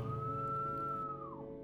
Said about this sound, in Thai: ตอนนั้นดูนาฬิกาโทรศัพท์เวลาประมาณตีสองเป็ดตอนที่เข้าไปห้องน้ำทำธุระเสร็จ และกำลังจะตักน้ำราดลงส้วมนั้นโฮกพันได้ยินเสียงผิวปากนั้นอีกครั้ง